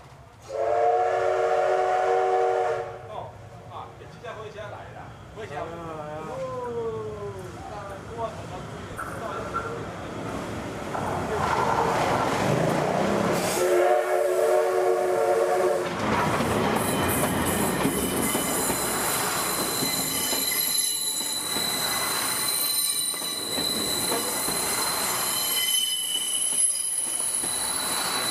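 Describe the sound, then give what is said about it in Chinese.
Taiwan's national-treasure steam locomotive CK124 opens with a loud, harmonic whistle blast, then rolls along the rails of the Pingxi Line on January 9, 2022, with steady rumbling, clattering wheels and recurring high-pitched squeals that continue to the end. “我想蒸汽火车跟这个地方应该是最有渊源的了，因为蒸汽火车所吃的东西就是这里盛产的原料。”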